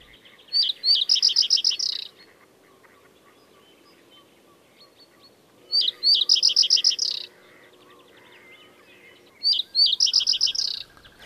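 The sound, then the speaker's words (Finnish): A male common reed bunting, perched at the top of willow scrub on a sunny morning just above freezing, sings three brief, simple phrases of quick chipping notes, repeated every few seconds. The song is clear over a quiet background, with no talking. “Pajusirkku istuu jämäkästi pajupensaikon latvuksessa ja laulaa vaatimatonta säettään”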